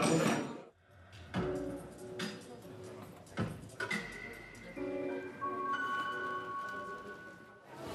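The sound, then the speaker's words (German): Sharp hammer blows strike metal at irregular intervals as metal is being driven by hand at a computer congress, each hit leaving a bright ringing tone that hangs and overlaps with the next, against a faint murmur of background activity. “Aber was man gelegentlich auch hört, sind einfach Hammerschläge. Hier wird nämlich ähm, ja, Metall getrieben.”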